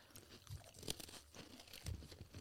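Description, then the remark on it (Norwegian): Crisp crunching of a snack being chewed, with several irregular bursts of crackly bites over a couple of seconds and no talking. “Svelg ned før dere begynner å preke.”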